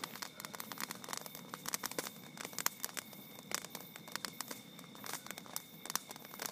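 A bonfire, watched during a meditation session, crackles steadily with irregular sharp pops and snaps over a soft continuous hiss, no voices present.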